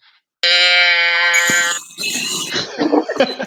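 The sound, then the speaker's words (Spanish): A loud, drawn-out cow moo with a buzzy, steady tone lasts over a second, then gives way to a rougher burst of grunting animal noise. “Voy a presentar a vuestros compañeros de equipo. Las vacas.”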